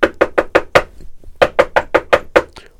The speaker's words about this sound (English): Anyways, I was sitting there, and there was a knock on my door.